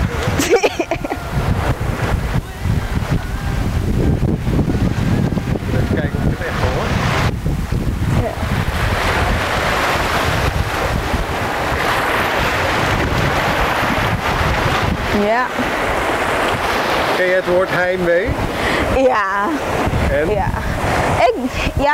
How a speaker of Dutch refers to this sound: Nou, laten we even kijken of we de golven kunnen horen.